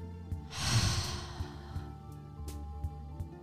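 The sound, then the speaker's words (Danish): A long, slow, breathy exhale after a deep inhale swells quickly and then trails off over a second or two, with a soft, steady musical hum and a few faint clicks underneath. “Og en lang god udånding.”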